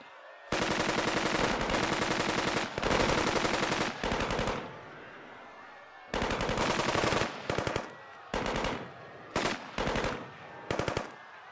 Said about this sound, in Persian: به چند تا از سربازایی که مسلسل داشتن دستور دادم اول به سمت ساحل شلیک کنن که مبادا زنده بمونه و بعدش هم گفتم به سمت مردم شلیک کنن